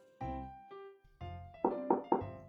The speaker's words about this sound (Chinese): 有人在敲门，是爸爸妈妈。